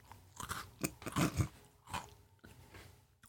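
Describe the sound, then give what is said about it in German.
Crisp crunching of someone chewing a crunchy chocolate-coated snack, a run of irregular bites and chomps over a few seconds with no talking. “Ich bin schon die ganze Zeit am Fressen.”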